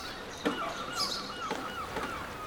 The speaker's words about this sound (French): Écoutez autour de vous. Les mouettes chantent déjà votre arrivée, au bruit des vagues qui s'échouent sur la coque de votre bateau.